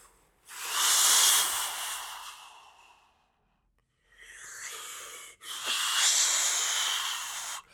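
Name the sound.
voice imitating sea waves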